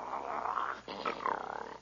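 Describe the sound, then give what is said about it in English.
A man down on all fours imitates a dog's growl, copying a strange dog that growls at him, two rough, throaty snarls with a brief break between them, no other talk. “He growls, so I'll growl.”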